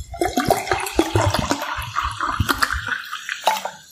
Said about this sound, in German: Ich schütte mir jetzt übrigens so als kleinen Spoiler Wasser ein.